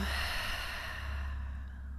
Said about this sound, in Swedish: tar vi bara ett djupt andetag in genom näsan, fyller upp hela bröstkorgen och magen med ny luft. Och låter luften åka ut genom munnen.